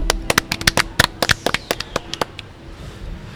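Brief, sparse applause from a small group for a company's financial director: sharp, irregular claps for about two seconds that thin out and stop, leaving a faint hum.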